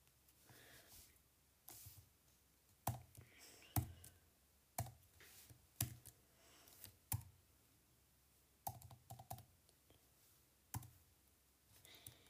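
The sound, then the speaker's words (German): Irregular bursts of keystrokes clack on a computer keyboard, sharp clicks arriving in uneven clusters with short pauses between them, over a quiet background. “Ja, ich, ich kann nicht auf dieser Tastatur schreiben.”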